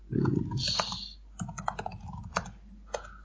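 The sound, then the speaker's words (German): Keyboard typing: bursts of quick, sharp key clicks at an uneven rhythm, with a short pause in the middle and a few louder keystrokes near the end. “Ich tippe, genau.”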